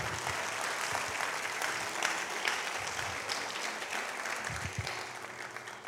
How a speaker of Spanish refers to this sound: ¿Cuántos dicen amén? Dale un aplauso al Señor, claro que sí. ¡Wow!